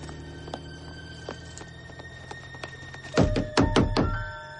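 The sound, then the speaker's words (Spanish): A worried woman who has got out of her car pounds on a house door, about five heavy, hollow thuds in quick, uneven succession, following a quiet stretch of low hum and a few faint clicks. “Sharon se apea de su coche preocupada y llama a la puerta de la casa.”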